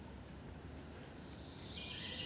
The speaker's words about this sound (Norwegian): På Sankthanshaugen i Oslo er det blitt enda litt varmere. Fuglesangene er høyere, og det lukter nyslått gress.